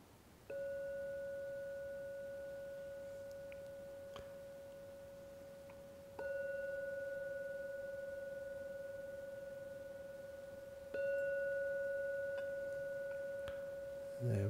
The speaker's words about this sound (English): And now I've got to ring the gong. I will ring it three times. At the end of the third ringing, please come out of the meditation.